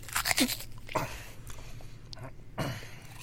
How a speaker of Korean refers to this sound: 계속 바게트를 입에 넣고 우적댔다.